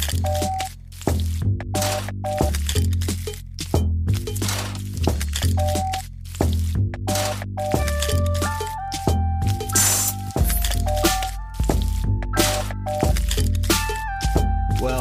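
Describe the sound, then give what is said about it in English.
A funky, steady beat made from sampled kitchen sounds: squishes, drips and clinks chopped into a rhythmic loop over a deep bass line with short synth-like melodic notes, loud and continuous, with no talking. “How about we make a funky beat out of all today's sounds?”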